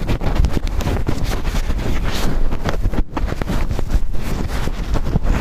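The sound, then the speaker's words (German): Loud, continuous wind buffeting hits a recording device's microphone after its windscreen is taken off, a dense low rumble with irregular gusty thumps and crackles throughout and a brief dip near the middle. “Jetzt den Windschutz ab. Achtung Leute, es kann ein bisschen laut werden.”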